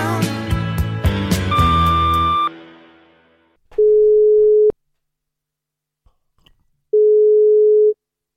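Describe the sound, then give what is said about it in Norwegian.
A brief burst of jumbled music fades out, then a phone's ringback tone sounds twice on a call to the mayor of Melhus: two steady, loud, one-second beeps separated by a long pause of near silence. “Så jeg tok en liten telefon jeg, til ordføreren på Melhus.”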